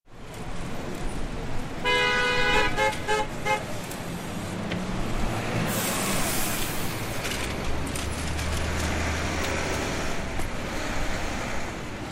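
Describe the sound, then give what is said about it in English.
Dense city street traffic in Times Square, New York, roars steadily, with a loud, bright car horn blaring in a few short honks early on and fainter horns and engine rumble continuing in the background. “This is a clip I recorded here in New York in Times Square.”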